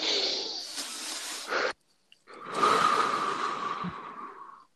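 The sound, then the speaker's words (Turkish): Two long, deep breaths: a drawn-out airy inhale, a brief pause of silence, then a slow, audible exhale trailing off. No talking. “Şu anda nefes alıyoruz. Hadi hep beraber.”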